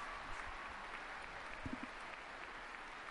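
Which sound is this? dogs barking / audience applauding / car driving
audience applauding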